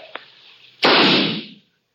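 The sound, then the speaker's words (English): A single loud gunshot cracks out, fired in the snow across a clearing at a man taking cover behind a boulder. Its broad blast rings and fades over about a second, after a faint click and quiet background hiss. “I waited for him to answer my fire, but there wasn't a sound from that side.”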